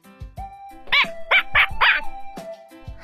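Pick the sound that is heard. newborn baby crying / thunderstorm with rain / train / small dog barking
small dog barking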